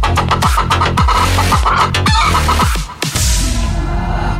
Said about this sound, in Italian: Nel frattempo, i ragazzi della banda ne approfittano per sculacciare la gallina in studio.